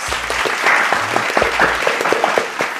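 A burst of applause welcoming a guest: dense, crackling clapping from several people that holds steady for a few seconds with no voices on top.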